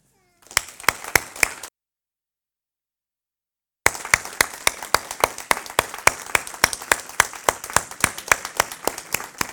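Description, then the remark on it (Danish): Loud hand clapping in quick, steady rhythm, a short burst, a pause of about two seconds, then a longer run of sharp, evenly spaced claps from what sounds like a small group. “Og jeg tænker, hvis nu at vi klapper højt, så kan det jo være, de kommer ind.”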